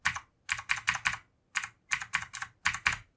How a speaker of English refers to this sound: But uh, now now listen up. It's clicky. I like it. Sounds good. Makes me you feel hear good. That? Mm-hmm. that? That's a Cherry MX Blue mechanical key switch.